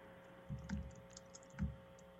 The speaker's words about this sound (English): Sorry if you hear my fingers hitting the keys uh, during any point in this podcast. We're trying to keep up with all of our notes.